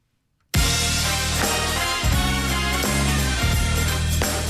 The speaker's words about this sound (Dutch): Weet u trouwens nog hoe de herkenningsmuziek van Barend en Van Dorp klonk? Die klonk zo.